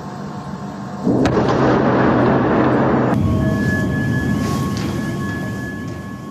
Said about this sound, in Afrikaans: Inwoners beweer hulle het tot 2 verdiepings ondergronds die ontploffings gevoel. Luister bietjie na hoe een van die ontploffings klink en onthou, dis hoe dit klink as as jy ondergronds is.